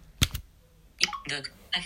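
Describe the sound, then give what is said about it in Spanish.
Two quick, crisp clicks of keys pressed on an Orbit Writer Bluetooth braille keyboard, the space and H combination used to go to a phone's home screen from settings. The clicks are fairly loud and are followed by a short burst of speech. “Por tanto, yo estoy aquí en ajustes y yo ahora le voy a dar con mi teclado Orbit Writer, le voy a dar a espacio H.”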